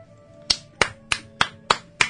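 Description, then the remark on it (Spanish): Knocking on a hotel door: six sharp, evenly spaced raps in a steady rhythm, each a crisp percussive hit, with no voices. “Llegaron y tocaron la puerta del hotel.”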